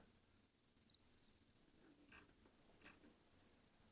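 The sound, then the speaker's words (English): Thin, high-pitched trilling calls of Bohemian waxwings, one long buzzy trill followed by a pause with faint chirps, then another trill starting up, fairly clear against a quiet background. “bit more of an exotic sound coming from the Bohemian Waxwing.”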